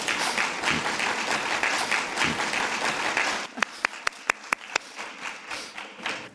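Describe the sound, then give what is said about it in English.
A crowd applauds in a dense, steady wash of clapping that suddenly thins out, leaving about half a dozen separate, sharp claps ringing out one after another before it fades. “I applaud too.”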